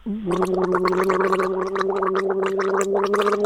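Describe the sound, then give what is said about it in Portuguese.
Someone gargles liquid in a steady, bubbling stream, a low throaty hum under rapid wet rattling bursts that continue evenly for about three seconds with no talking. “Então elas botam um líquido na boca e fazem desse jeito.”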